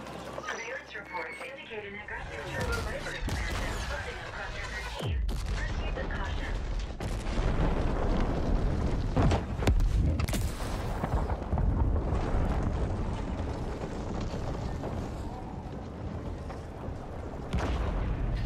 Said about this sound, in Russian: Так назван один местный район и стал сталкиваемся с сочной аварией. Лично меня звук и визуал полностью устроил.